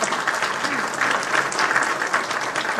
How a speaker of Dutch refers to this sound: nog een applaus. Weer met papier.